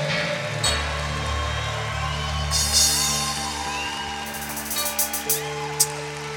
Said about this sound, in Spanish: Vamos, si le vas a aplaudir, apláudele fuerte al rey. Y alégrate.